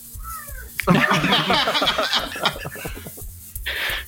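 A cat lets out a long, loud meow, a drawn-out wavering cry lasting a couple of seconds, followed by a short burst of hissy noise.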